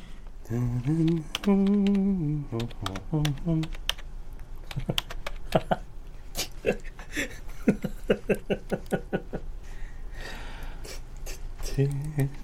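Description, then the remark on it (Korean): Rapid, irregular clicking of a father's fingers typing on a computer keyboard in the uncle's room, the keystrokes sharp and steady through the middle, with a voice vocalizing briefly at the beginning and again at the end. “아빠가 컴퓨터 쓸 일이 뭐가 있지?”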